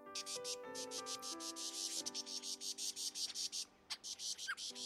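A lyrebird mimics a small flock, even imitating the birds' wingbeats: steady, rapid whirring pulses like fluttering wingbeats run throughout, with soft sustained tonal calls underneath. It is fairly loud, with no voices.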